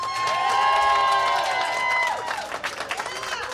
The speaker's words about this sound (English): Ladies and gentlemen, a warm round of applause for Wendy Dio, everybody.